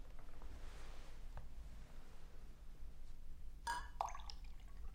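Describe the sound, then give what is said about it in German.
Water splashes briefly into a glass with a light clink near the end, fairly quiet, over a steady low background hum with no one talking. “Nur einen Schluck Wasser.”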